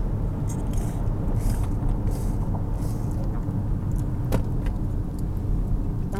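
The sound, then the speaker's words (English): A steady low rumble fills the inside of a car crawling through traffic, with faint rustles and a few soft clicks over the constant engine and road hum. No one speaks. “sorry we're just now moving like i've only like four exits or i guess maybe 10 exits now from where i live and we've just been stuck in traffic”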